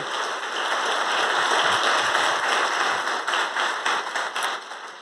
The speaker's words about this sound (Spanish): ¿Usted lo cree? ¿Cree seguro lo cree? Si usted lo cree, dele un aplauso fuerte, fuerte al Señor, fuerte.